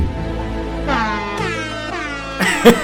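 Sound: air horn blast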